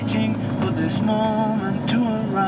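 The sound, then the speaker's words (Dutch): A song with a sung melody plays steadily from the radio of a car driving to Bolderberg, heard over the low, constant rumble of the moving vehicle. “En hoor je het nummer op de achtergrond?”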